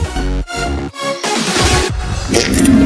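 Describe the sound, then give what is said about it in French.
Three loud, low raspy fart blasts in quick succession, followed by a longer noisy, sputtering stretch, with no talking. “C'est quoi ce bruit euh, j'ai pété, je, croyais que ça s'entendrait pas.”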